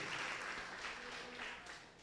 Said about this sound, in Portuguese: Aplauda o Senhor Jesus. Glória a Jesus.